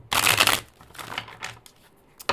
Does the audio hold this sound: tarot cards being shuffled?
yes